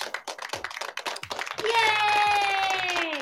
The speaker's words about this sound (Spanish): Habiendo dicho eso, cámbiame los aplausos, por favor.